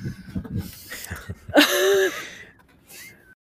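A dog pants in quick, rhythmic breaths, then lets out a louder wheezy, whining gasp before a final short exhale.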